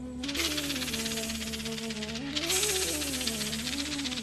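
A rattlesnake rattles its tail in a continuous dry, buzzing rattle, steady and fairly loud, over sustained tonal background music with wavering pitch and no speech.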